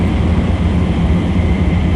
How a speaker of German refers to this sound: Zug fährt in den Tunnel und das Licht geht aus. Also perfektes Timing.